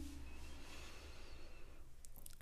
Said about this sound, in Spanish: Inhalo por nariz profundamente y vas a exhalar por boca lenta y suavemente. Que sea más prolongada la exhalación que la inhalación.